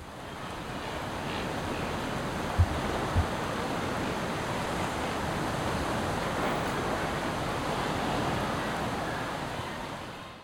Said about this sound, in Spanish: En medio de la paz de la playa, aunque no en el mar,